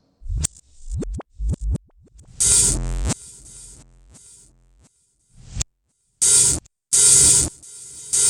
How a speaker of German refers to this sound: Was haben wir hier noch Schönes? Hier haben wir noch Rückwärtsdrums.